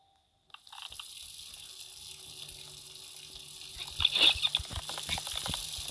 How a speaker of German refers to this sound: Und hier einfach mal wieder den Wasserhahn aus.